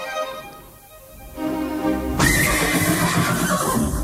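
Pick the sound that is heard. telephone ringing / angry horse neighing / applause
angry horse neighing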